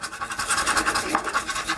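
Rapid, continuous scratching of a coin or fingernail across the dollar signs of a lottery scratch-off ticket, a raspy, bright rhythmic scraping with quick repeated strokes and no voices.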